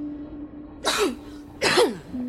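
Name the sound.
cough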